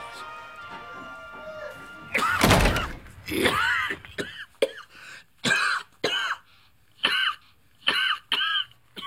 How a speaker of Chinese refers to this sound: 听到这句话，一口气没转过来，连连咳嗽。